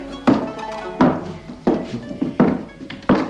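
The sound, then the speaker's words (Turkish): A door being closed, heard as five heavy wooden thuds at a steady, slightly uneven pace, each a dull low knock over a faint humming background with no one speaking. “Önce şu kapıyı kapatalım.”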